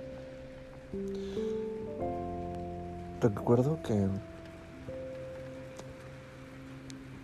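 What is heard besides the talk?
rain falling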